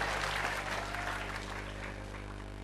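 A crowd claps steadily for a few seconds, a dense, continuous patter that stays fairly even before easing slightly, with a low electrical hum underneath.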